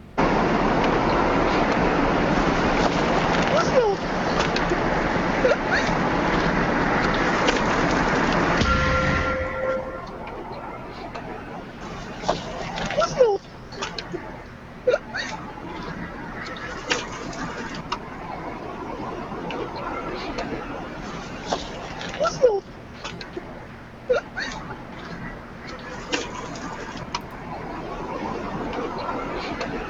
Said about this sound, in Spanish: Y escuchamos psicofonía ahora.